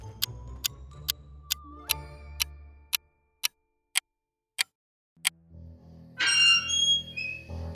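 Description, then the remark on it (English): A steady series of sharp ticks slows and fades, then a loud, high-pitched creaking of a cemetery gate swings in and grinds on to the end. “Why do cemetery gates always have to creak?”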